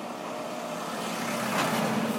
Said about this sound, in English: More cars, bye bye cars